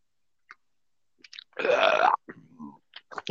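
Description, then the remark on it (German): A single loud, rasping croak from the throat of a person who is still somewhat unwell (not a burp) lasts about half a second. Small clicks and quiet mouth noises come before and after it. “Also das war kein, das war kein Rülps, das war ein, ein Krächzen, weil ihr hört, ich bin noch etwas angeschlagen.”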